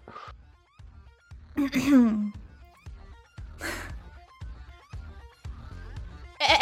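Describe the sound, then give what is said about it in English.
A person gives a short, wavering bleat-like vocal imitation of a goat, breathy and falling in pitch, with other brief vocal bursts and snorty breaths around it. “I'm not doing the goat noise.”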